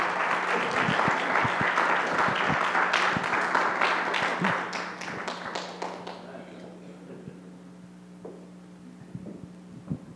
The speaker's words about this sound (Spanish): ¿La quieren conocer o no? Démosle un fuerte aplauso al Señor por la vida de mi esposa.